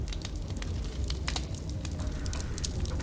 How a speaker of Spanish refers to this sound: Ya está muy fuerte la lumbre.